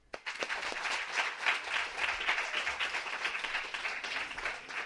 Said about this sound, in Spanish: Y como nos sentimos muy bien recibidos, creo que lo mejor es que todos, y digo todos, nos demos un fuerte aplauso por estar hoy aquí.